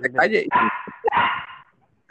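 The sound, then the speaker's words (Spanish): A dog barks loudly, two harsh barks in quick succession after a brief voiced whine, then the sound cuts to silence. “El perro tiene razón.”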